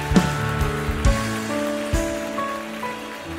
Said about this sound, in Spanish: ¿Cuánto le dan la gloria al Señor por eso, iglesia? Dale un aplauso más fuerte al Señor.